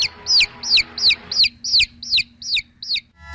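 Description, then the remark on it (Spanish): A chicken calls in a steady series of about eight sharp, high, evenly spaced peeping clucks, fairly loud over a faint low hum, with no one talking, at the start of a radio commercial. “ya me voy porque, a ver, el, comercial del pollito.”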